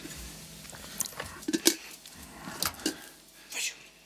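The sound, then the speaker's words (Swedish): Crunchy chewing of crisp gingerbread cookies, with irregular sharp crackles and bites spread across a few seconds, fairly quiet overall. “Gud vad gott det är med kakor ändå.”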